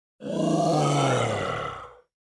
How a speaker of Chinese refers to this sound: 小雷的石球用时速一百五十的球速，直直的击中了老虎怪兽的头。老虎哀鸣了一声之后